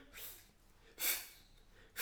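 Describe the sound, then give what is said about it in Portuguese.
A voice imitates slicing a tennis ball with three short, breathy hissing bursts, evenly spaced about a second apart, fairly soft, with no talking. “isto é o som de cortar a bola, sabem?”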